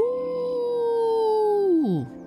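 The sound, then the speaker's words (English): A person imitates a long wolf howl, one steady, sustained tone held for nearly two seconds before the pitch slides down and trails off. It is fairly loud. “Wolfie stopped picking potatoes for a moment and let out a long howl.”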